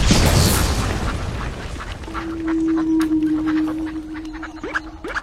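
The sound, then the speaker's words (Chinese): In a video game, a heavy boom opens as three ducks appear, followed by a string of short, sharp duck quacks, with a steady low hum running underneath and a couple of rising squawks at the end. “出来吧，重磅毁灭鸭三姐妹！”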